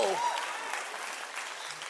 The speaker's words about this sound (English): Would you clap your hands? Would you clap your hands?